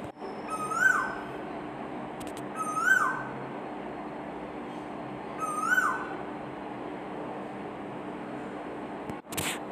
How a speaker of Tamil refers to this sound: எனக்கு அது கேட்டுகிட்டே இருக்க ரொம்ப இனிமையாக இருக்குது அந்த குயில் கூவுறதை நீங்களும் கேட்கணுன்னு தான் ஆசையாக இருந்துச்சு அதான் அவங்களுக்காக நான் அதையும் அந்த நேரத்தை வெயிட் பண்ணி அவங்க கூறப்ப நான் அவங்களுக்கு சேர்த்து போட்டுட்ருக்கேன்